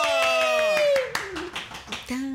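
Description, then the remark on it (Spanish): Steady rhythmic clapping, sharp hand claps at a quick regular beat, with a loud sustained vocal cry sliding downward in pitch over them, followed by more voices. “¡Un aplauso!”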